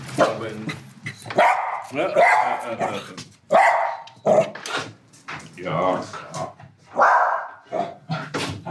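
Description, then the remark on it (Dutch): A dog barks repeatedly in loud, agitated bursts at someone at the door, with a person's voice briefly speaking between the barks. “Dit is de hond van Herman Brusselmans. En die is niet blij, want er staat een arjonaut voor de deur”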